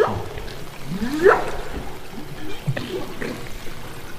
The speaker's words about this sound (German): Genau, weil jetzt kann zum Beispiel ein Wal sagen, hallo, hallo, ist jemand hier? Und ein anderer Wal antworten. Und sie wissen, sie sind in der Nähe und sie müssen sich nicht gegenseitig anschreien.